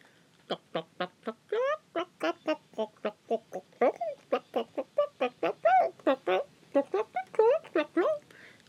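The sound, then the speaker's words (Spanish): A voice imitates hens clucking: a long, rapid run of short, chattering cluck-like bursts with a few rising squawks mixed in, fairly loud, steady throughout. “Cloquearon y cloquearon.”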